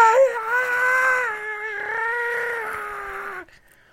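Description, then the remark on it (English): A person's voice imitates a dog whimpering: one long, high, wavering whine held for about three seconds, fairly loud, then it stops abruptly. “there was a dog eating his garlic bread leg ah and the dog was like ar, ar, ar”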